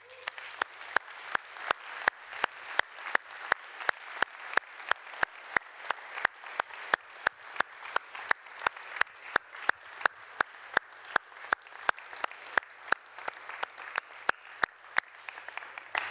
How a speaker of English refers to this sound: But we honor you guys. Let's just uh, applaud these guys.